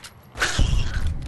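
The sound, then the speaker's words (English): A video game door creaks open with a short grinding, mechanical groan that swells after a quiet start and rumbles low as it finishes, fairly loud, with no voices. “Door?”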